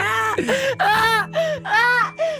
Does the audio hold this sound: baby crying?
yes